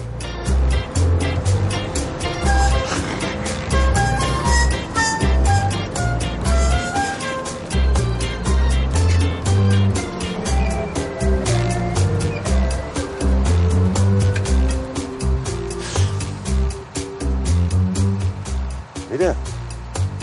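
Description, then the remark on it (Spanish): A bus carrying five friends in its back seats back to work drives along, its engine droning steadily through the whole stretch, a low rumbling bed beneath people's voices and bright, melodic sounds that stay loud throughout. “En la parte de atrás del autobús van los cinco amigos.”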